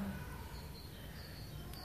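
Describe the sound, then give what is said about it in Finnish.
A great tit sings faintly, a few repeated high whistled notes drifting over a soft, steady spring forest ambience with no voices. “Talitiainen ainakin.”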